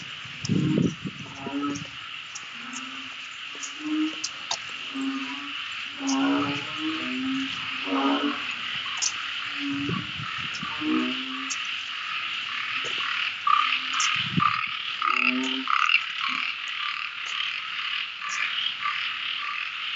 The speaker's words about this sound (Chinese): 还青蛙还什么的声音啊？这是什么声音啊？ 青蛙大合唱的声音。 这就是沙美岛的晚上，